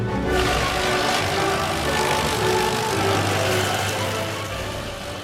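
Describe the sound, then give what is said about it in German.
A paper shredder runs continuously, shredding stacks of paper printed with EU legislation: a loud, steady mechanical whir and grind with a low motor hum underneath, holding for about five seconds before easing off slightly at the end. “Und dann wird der Schredder angestellt. Und ironischerweise wird dann zur EU-Hymne das ganze Papier geschreddert.”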